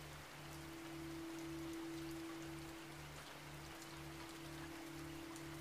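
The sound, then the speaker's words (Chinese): A steady, hissing wash of a clear river, fed by melted snow from high mountains, rushing and tumbling over rocks without pause, soft and even, with a low sustained hum and faint pulsing tones underneath. “闭着眼睛躺在这里，你可以听到河水在岩石上翻滚的奔流声。”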